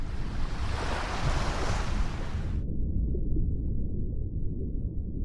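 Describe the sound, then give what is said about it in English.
A loud, steady roar of crashing ocean water fills the first half, then abruptly turns into a muffled, low rumble, as if sinking beneath the surface. No voices. “And then the water crashes in over you and you all black out.”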